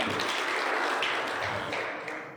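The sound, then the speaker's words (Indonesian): A crowd of about 53 people claps steadily, a dense crackle of many hands blending into a continuous wash that stays fairly even before starting to fade toward the end. “53 tepuk tangan suruh sekalian ya.”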